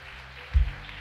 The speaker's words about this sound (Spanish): ¿Cuántos le dan un aplauso fuerte a papá?